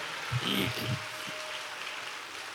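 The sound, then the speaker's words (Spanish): An audience applauds in praise of God in a steady, dense wash of clapping that holds for the whole moment, with a few low voices briefly rising underneath at the start. “Dale una alabanza al Señor, dale una alabanza, dale un aplauso, alábalo a Él.”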